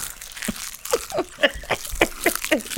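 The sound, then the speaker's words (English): Crunching while someone eats plantain chips from a bag during a class: a string of crisp, crackly bites and chews, about eight short bursts in an uneven rhythm, fairly loud and with no talking. “so I ain't saying that because I'm like, he's definitely gonna stop doing this shit, crunching them shits while I'm fucking teaching.”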